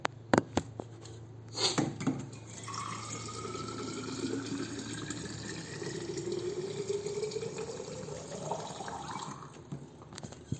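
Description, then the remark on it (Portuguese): Water runs steadily from a tap into a glass, the pitch rising as it fills over several seconds, preceded by a few clicks and clunks; no talking. “É eu, eu preciso pegar uma água aqui, calma aí.”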